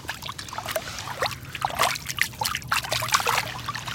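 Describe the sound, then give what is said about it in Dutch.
A hand swishes and splashes through shallow, cool spring water welling up from the ground of a push moraine beside a river, with irregular bright slaps over a steady trickle and a low background rumble; no one speaks. “En er komt gewoon water nog omhoog vanuit de stuwwal.”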